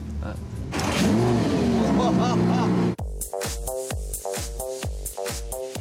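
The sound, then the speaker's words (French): A Lamborghini sports car engine revs and accelerates loudly, its roar climbing in pitch, then shifting into a series of rhythmic throttle pulses as the car surges forward while being driven in the 16th arrondissement. “Vous me faites rouler dans le 16e à Lamborghini.”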